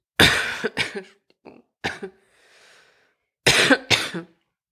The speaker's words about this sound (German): Du musst vielleicht jetzt nicht unbedingt direkt ins Mikro husten. Ich also. habe daneben gehustet.